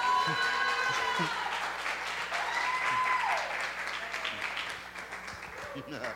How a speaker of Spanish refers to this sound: Un aplauso